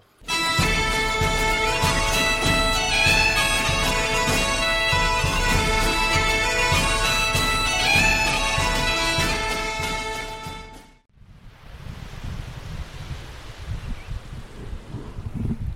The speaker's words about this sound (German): Ja, an den Wellen könnt ihr vielleicht hören. Wir sitzen am Meer. Wir sind heute in Bellix Galax.